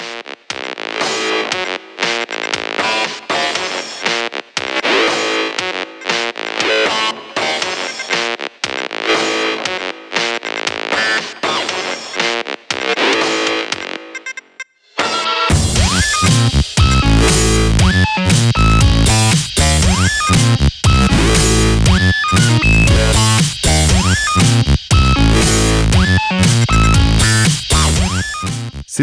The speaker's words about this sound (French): mais il y a aussi d'autres passages qui sont complètement assumés comme étant purement électro, et c'est d'ailleurs le cas dans le pont du morceau qui s'appelle